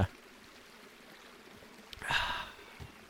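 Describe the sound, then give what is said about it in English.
A quiet pause, then a single sip of water followed by a short, breathy exhale, with a faint soft thump near the end. “Whoo, better get some water to put me out.”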